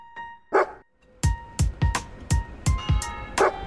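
A dog barks sharply, a quick run of about eight loud barks in a steady rhythm, with a faint steady hum in the background and no talking.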